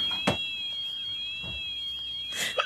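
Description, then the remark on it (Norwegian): A continuous high-pitched electronic alarm from a robotic lawnmower facing a moose beeps steadily with a slight warble, joined by a few soft thumps and rustles in the background. “Og alarmen som går, det, det er gressklipperen som, som sier ifra.”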